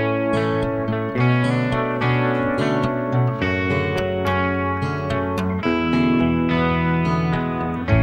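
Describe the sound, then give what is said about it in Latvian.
An instrumental song opening plays loud and steady, full chords with a driving low end and effected, slightly distorted tones shifting every second or so, with no singing yet. “gribēja šo dziesmu dzirdēt.”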